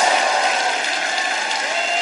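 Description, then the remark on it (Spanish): An audience gives the Lord applause and shouts of joy, a dense wash of clapping mixed with joyful shouts and whoops, loud and sustained throughout with no pauses. “Es más, ¿por qué no proféticamente usted hoy le da un aplauso Señor y un grito de júbilo por todos aquellos que van a venir a casa una vez más?”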